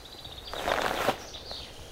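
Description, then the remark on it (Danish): A harsh, rasping screech of a Eurasian jay flying over cuts in for about half a second, over thin high bird whistles and quiet outdoor background. “Øhm, oh, der var en skovskade henover her.”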